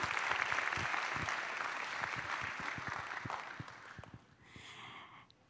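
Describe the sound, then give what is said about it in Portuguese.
An audience at a church service applauds the Lord in a dense burst of clapping that starts loud and gradually thins out, tapering to a quieter patter near the end. “Aplaudam o Senhor.”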